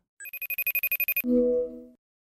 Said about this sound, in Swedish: Och eh, det är precis det jag ska göra, för Thomas Wodski hade nämligen vänligheten att vilja vara med här, så jag ringde upp honom på Skype.